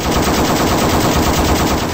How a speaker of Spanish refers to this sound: los francotiradores de la policía abrieron fuego